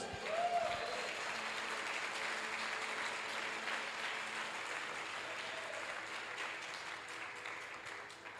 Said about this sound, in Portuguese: Se tem homens e mulheres de propósito aqui nessa noite, dá um forte aplauso a Jesus.